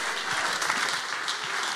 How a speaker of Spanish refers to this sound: Pero habrá alguien aquí que pueda aplaudir al Señor.